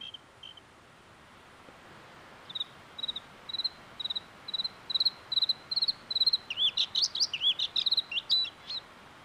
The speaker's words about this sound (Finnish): Kansanomaisilla nimillä Sinerintaa on kutsuttu enontekijöillä ja Sodankylässä kellolinnuksi.